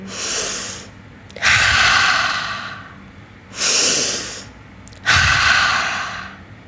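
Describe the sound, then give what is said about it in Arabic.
Two slow, deep breath cycles: a long airy inhale through the nose followed by a louder, rushing exhale through the mouth, repeated in a calm steady rhythm with no talking, as a breathing exercise to calm the nervous system. “اوكي قومي اوقفي وحاولي انك تتنفسين لمده 15 ثانيه نفس عميق وطلعي النفس من آه، الفم فنفس من الانف اخذي نفس من الانف عميق وطلعي النفس من الفم ففي العادة يكون في صوت للنفس هذا”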